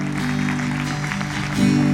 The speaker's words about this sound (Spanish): Aleluya. Den un aplauso a Jesús.